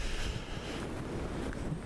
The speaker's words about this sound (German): Ja, und es windet jetzt endlich.